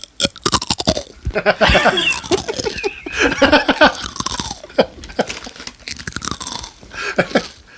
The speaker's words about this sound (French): Écoute ça, ça c'est le pain de seigle. Ça, c'est du. Le pain de seigle fait ASMR, ça.